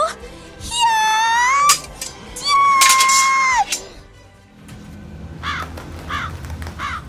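A crow gives two long, harsh, drawn-out caws, loud, followed by a few fainter, shorter cawing calls.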